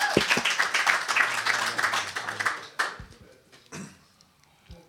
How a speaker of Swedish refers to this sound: Applåd! Och när ni ändå är i farten, ytterligare en applåd